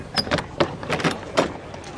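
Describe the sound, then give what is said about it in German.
A door is opened after a knock, with a series of clicks and knocks from the latch and handle, spread over a couple of seconds with no one talking. “klopft es an der Tür. Pemberton legt den Löffel beiseite und öffnet.”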